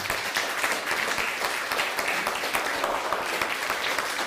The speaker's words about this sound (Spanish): Dele un fuerte aplauso.